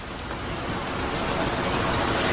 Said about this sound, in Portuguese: A chuva. Mas atenção, eu tinha pensado fazer esta edição sempre com este som de chuva por baixo, mas acho que isto vai dar imensa vontade aos ouvintes de fazer xixi.